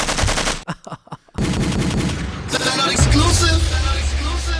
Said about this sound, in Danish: Kan vi få Kalashnikov-lyden?